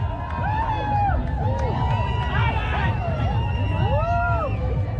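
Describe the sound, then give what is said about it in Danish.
A large crowd at a political Pride walk through Nørrebro, people carrying flags and banners, with many voices shouting and chanting over a steady roar of babble. Rising and falling calls overlap continuously and stay loud for the whole stretch. “i år, som er den her mere sådan politiske Pride Walk ned gennem Nørrebro, hvor folk går rundt med flag og banner, og der er kampråb, og ja, alle er egentlig virkelig, virkelig stolte og glade”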